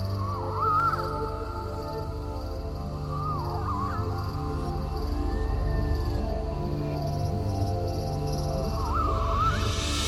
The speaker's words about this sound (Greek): Και τα τζιτζίκια. Ε, τα... Αυτό είναι πολύ βασικό στοιχείο τη καλοκαιρινή ανάγνωση.